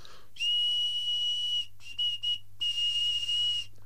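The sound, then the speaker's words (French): A piercing, high-pitched tubular terracotta whistle, of a kind heard some 6,000 years ago, blown in a long steady tone, then a few short broken blasts, and another sustained note, loud with no voices. “Euh, c'est un son euh, donc euh, très aigu, un sifflet tubulaire.”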